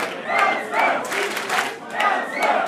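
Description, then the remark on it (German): About 450 fans chant in unison inside a packed club before a band's concert, a loud rhythmic group shout rising and falling in repeated phrases, echoing around them. “Den Sprechchor habe ich in dieser Woche schon mal gehört.”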